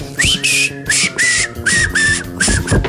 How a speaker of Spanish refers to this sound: Perdón por mi silbido pinchurriento, pero es mi interpretación personal de ….